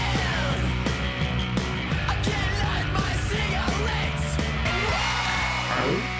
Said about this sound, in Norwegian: Men eh, aller først så foreslår vi spiller litt music.